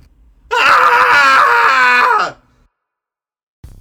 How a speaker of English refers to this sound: Um, but yeah, everyone, let's do a cathartic scream. It's Friday. Uh, my brain is mush. And so we'll do a three count and scream along with us. Here we go. In three, two, one.